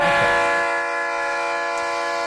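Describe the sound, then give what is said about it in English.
A loud, sustained train horn sound effect, played as a livestream hype-train alert, blares steadily for a couple of seconds, its rich harmonic chord holding without a break. No voices are heard. “Oh shit, we got a hype train.”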